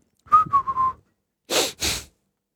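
Someone whistles a short three-note phrase, clear, then two breathy, hissing puffs of air follow. No talking.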